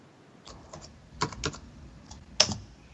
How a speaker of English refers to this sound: And some typing sounds.